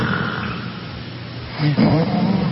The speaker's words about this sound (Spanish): Si se dan cuenta, va cambiando la intensidad del ronquido